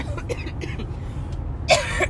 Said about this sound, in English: Sorry, I'm still coughing a little bit.